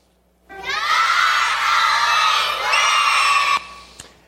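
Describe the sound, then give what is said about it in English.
A crowd of children at an evening VBS session shouts together in one loud, sustained reply, 'God always wins', to the cheer question 'Who's going to win?', lasting about three seconds, rising in pitch partway through before cutting off abruptly. “Well, let me let you listen to our evening VBS session as those kids replied to that question.”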